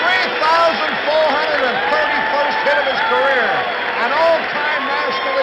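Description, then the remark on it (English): A baseball stadium crowd of about 50,000 people roars and cheers in a sustained standing ovation, everyone up, even in the players' dugout, for a hit breaking the record long held by Honus Wagner; thousands of overlapping voices form a loud, steady wall of sound with no break. “A standing ovation. 50,000 people. Everybody up, even in the players' dugout.”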